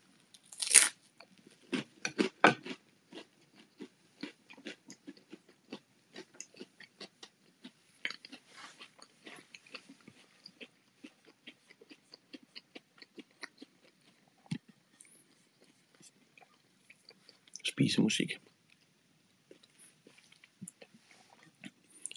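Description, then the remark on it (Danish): Crisp crunching and chewing of food with the mouth closed, made to create eating music: a dense run of small bites and crackles at first, then sparser chews, with a louder crunchy burst near the end. “Jeg smasker med lukket mund. Så der er i hvert fald masser af lyd at gøre med, når man skal lave spisemusik.”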